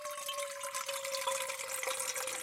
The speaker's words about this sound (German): Genau, hier habe ich eine Schüssel. Meinst du, die ist groß genug für ihn? Ja. Ich eine Gießkanne. Achtung, ich gieße da Wasser rein, ja?